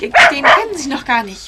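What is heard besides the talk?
dog barking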